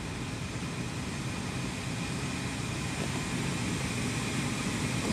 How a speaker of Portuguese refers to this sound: Deixei o ar-condicionado no modo alto